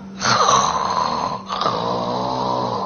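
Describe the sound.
A person imitates gentle, even snoring, the light, regular kind typical of someone lying on their back after a little alcohol: two long, steady rasping breaths, one right after the other, with a brief pause between them and a fairly uniform level throughout.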